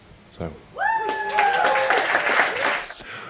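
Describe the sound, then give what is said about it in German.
A crowd at an Elon Musk Neuralink presentation breaks into cheering and applause, with a few high, drawn-out whoops rising over a dense, steady wash of clapping that lasts a couple of seconds before fading. “Noch jubelt eine womöglich noch nicht ferngesteuerte Klacke oder Clique oder bei Musks Firma Neuralink.”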